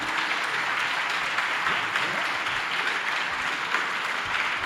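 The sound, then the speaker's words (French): Steady, moderate applause from an audience welcoming François Villeroy de Gallo, governor of the Banque de France, a dense wash of clapping hands that holds at an even level for several seconds without cheers or voices. “je vous propose que sans plus tarder et sous vos applaudissements polis, nous accueillons le gouverneur de la, de la Banque de France, François Villeroy de Gallo.”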